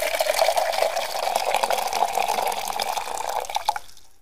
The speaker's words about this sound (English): I hope you guys liked our little coffee pour